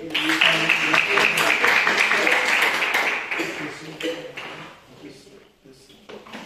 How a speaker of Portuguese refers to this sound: E eu agradeço a oportunidade e as palmas que andarem ao Senhor.